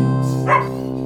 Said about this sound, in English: God, I gotta throw some WD 40 on this bitch. Do you hear it squeaking when I move it?